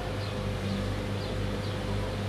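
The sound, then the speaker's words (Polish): Electric generators, used because there is no mains electricity, run with a steady, continuous engine drone, a low humming buzz that holds an even level throughout, with no voices. “Dźwięki generatorów, bo prądu tutaj też nie ma.”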